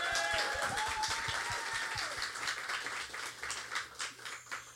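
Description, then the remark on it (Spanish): A crowd applauds steadily for several seconds for a band, a dense crackle of many hands, with a few high whistle-like tones early on. The clapping thins slightly toward the end. “Un aplauso para …, perdón, pero qué bien lo hicieron, ¿no?”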